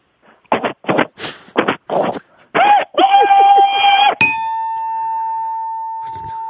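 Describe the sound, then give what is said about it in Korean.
A voice imitates a steam locomotive with a quick series of rhythmic, breathy chuffs, then a wavering whistle-like hoot. A loud, steady ringing tone follows and lingers to the end. “자, 자, 증기 기관차 한번 들어보겠습니다.”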